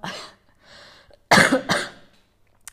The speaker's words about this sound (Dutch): Af en toe echt nog zo'n kriebel in mijn keel. Ineens een hoest. Ehm, sorry daarvoor.